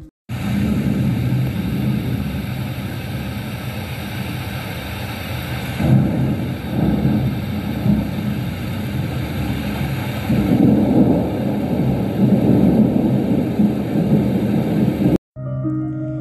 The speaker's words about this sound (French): Au dehors, l'orage passe en plein.